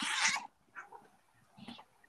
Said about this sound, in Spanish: Está, mi gato está puta como lunado, huevón. me quiere atacar, huevón.